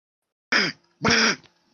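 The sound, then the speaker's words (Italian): Two short, nasal, raspy honks from a human voice, the second longer and louder, mimicking a duck's quack as a quiz answer buzzer, with silence around them. “Cos'è? È un papero. Eh, chiaramente un papero.”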